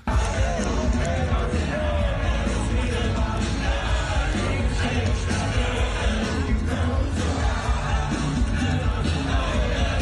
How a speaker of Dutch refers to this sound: Ik kan wel een, stukje laten horen van bestil, maar je hoort eigenlijk alleen publiek.